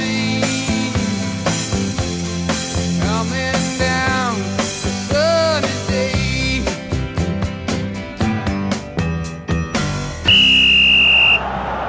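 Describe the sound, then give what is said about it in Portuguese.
A referee's whistle gives one long, shrill, steady blast at the end, following a stretch of busy, rhythmic music with sharp percussive hits. “Hora do árbitro apitar.”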